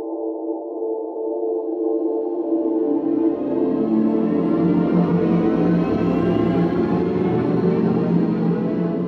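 A synthesized electric-car sound designed as the sound of a car of the future: a steady layered electronic hum that swells after a couple of seconds into a dense, rising whooshing texture, loud and continuous, with no voices.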